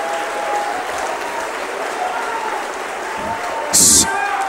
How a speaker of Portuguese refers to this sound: Amém, irmãos? Amém. Aplaude o Senhor, sim. Aplaude o Senhor.